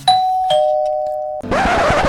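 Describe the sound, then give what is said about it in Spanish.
A doorbell, rung by a Nacex delivery man, rings out a clear two-note ding-dong, each chime ringing on and fading slowly, followed by a burst of broad rustling noise at the end. “¿Pero quién interrumpe el cuento de esta manera? Hola, soy el repartidor de Nacex.”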